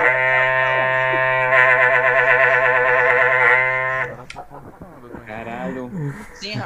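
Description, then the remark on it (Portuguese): A long, steady, low moo from a cow holds for about four seconds, loud, then gives way to people talking. “Mas o mugido foi pra cava mesmo, não foi pro Coringão.”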